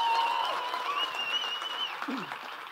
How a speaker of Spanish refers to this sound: Bienvenidos acá, bienvenidos allá, bienvenidos. ¿Cuánto le damos un aplauso a ellos ahora?